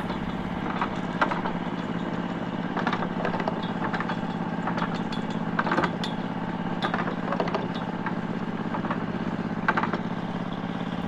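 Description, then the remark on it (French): A tractor engine idles steadily at a low, even rumble, with faint clanks and rattles scattered over the drone. There is no talking. “Et quand Jenny est sortie pour étendre sa lessive matinale, vous avez démarré le tracteur.”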